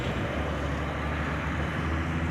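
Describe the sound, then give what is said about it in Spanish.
Steady, dense rumble of heavy truck engines and road noise, continuous and fairly loud, as hopper trucks for sand drive out of a company in an industrial estate, with no talking. “Anda que no salen camiones de esta empresa”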